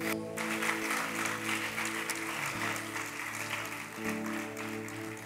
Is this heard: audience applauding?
yes